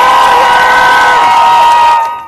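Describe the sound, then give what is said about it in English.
A loud crowd cheers and shouts in reaction to the jury's verdict in the Chauvin trial over George Floyd, reactions stretching from Salt Lake City to Minneapolis, in a sustained, dense roar with high whoops layered through it, holding steady for about two seconds before quickly dropping off. “And the reaction from Salt Lake City to Minneapolis was immediate. Make some noise for George!”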